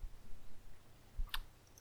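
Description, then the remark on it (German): A single quick clatter of a die rolling and settling during a tabletop role-playing game, a short burst of sharp clicks on a hard surface, soft against a quiet, faintly humming background. “Gut, dann würfeln wir einmal.”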